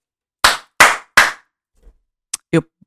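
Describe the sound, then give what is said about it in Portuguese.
Three loud, sharp hand claps ring out in quick, even succession in a home at 11 o'clock, each with a short echo, followed by a pause and a couple of softer, brief noises. “E são 11 horas e eu estou loudly a bater as palmas na minha casa”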